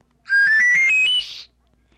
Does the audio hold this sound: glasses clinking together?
no